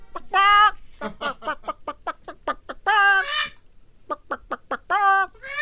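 Chickens cluck in a steady series of short calls, broken by a few longer, drawn-out squawks from a rooster. No talking.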